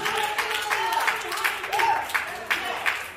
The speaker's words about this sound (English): How many know there's a celebration in here? Give God a hand clap of praise all over this building.